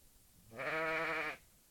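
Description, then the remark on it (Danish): A single loud bleat from a sheep standing about 3 meters away, a wavering, buzzy baa lasting under a second against quiet background noise; the sheep bleats in a steady beat every five seconds. “Eller hvad man skal kalde det, når der står et får bræger 3 meter fra en.”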